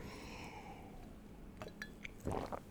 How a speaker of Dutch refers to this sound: Ik neem even een slok thee.